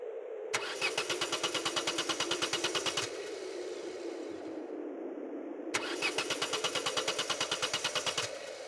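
A recent-model, freshly serviced car's engine cranks in two separate attempts, each a few seconds of rapid, rhythmic churning that stops without the engine catching, with a low hum in the short gap between them.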